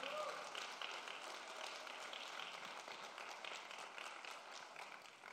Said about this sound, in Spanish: Alguien está alguien lo cree y le da un aplauso al Señor.